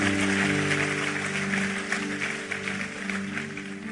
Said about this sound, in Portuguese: Em nome de Jesus, vamos aplaudir a Ele.